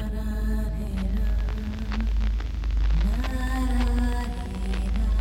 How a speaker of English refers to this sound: I heard something as I tried the second door. It sounded like s- singing. It was beautiful, the voice I heard, but also s- strange be honest, the voice terrified me.